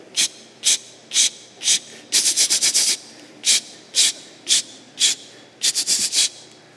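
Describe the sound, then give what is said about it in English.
A neighbor's pulsating lawn sprinkler sprays in quick rhythmic bursts of hissing water, with steady single pulses breaking into faster rattling runs, with no voices. “It's, the, it's that hypnotic rhythm of your neighbor's pulsating sprinkler”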